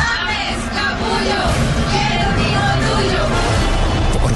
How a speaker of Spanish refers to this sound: las chicas en la tribuna gritan